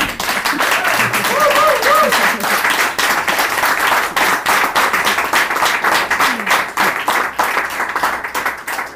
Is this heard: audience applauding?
yes